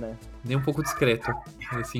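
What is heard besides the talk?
dog barking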